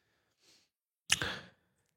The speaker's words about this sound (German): Dieses kleine Geräusch da, das war mein Magen, was ihr gehört habt, dieses kleine Buik-Geräusch.